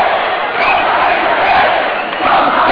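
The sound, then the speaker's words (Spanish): A loud, dense arena crowd shouting and jeering at the Real Madrid players, chanting "no sabéis perder", a continuous wall of many voices with no gaps, swelling slightly toward the end. “El público que grita algunas cosas a los jugadores del Real Madrid.”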